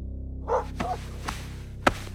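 A dog barks a few times in short, irregular bursts over a steady low hum while biting a child, fairly quiet overall, with the last bark sharper and louder.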